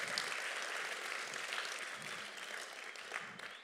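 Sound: audience applause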